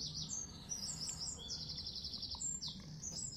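Finch calls: a string of bright, high chirps and short rapid trills repeating quickly, set against a low steady background rumble, with no one talking.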